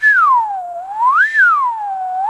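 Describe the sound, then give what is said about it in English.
A person whistles in imitation of a children's slide whistle: one unbroken, clear tone sweeps smoothly downward, swoops back up, then glides low again, steady and fairly loud with no talking. “Now, a children's slide whistle, of course, is a whistle you blow into at one end, and then at the other end, there's this little rod that you pull back and forth, and it sort of goes.”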